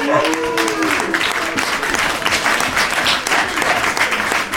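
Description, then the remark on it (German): An audience at a quiz night applauds steadily for a team with 85 points, a dense wash of many hands clapping at an even, sustained loudness for several seconds, with a few voices and cheers mixed in near the start. “Und jetzt ein warmer Applaus für 85 Punkte.”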